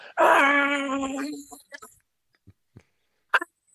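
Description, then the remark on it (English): A single loud, reedy saxophone honk on a recorded jazz track, held for over a second with a wavering pitch, then fading into a few faint clicks and a short breathy burst of the player's breath. “But he's just honking on a dis on dis.”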